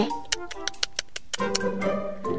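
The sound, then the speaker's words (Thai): A voice imitates a house gecko's chirping call: a quick, even run of about eight sharp clicks over a hummed tone, then a longer sustained vocal sound, moderately loud. “เวลาได้ยินเสียงจิ้งจกร้อง มันก็อาจจะกำลังบอกว่า อย่ากโกหกแบบมันก็ได้นะคะ”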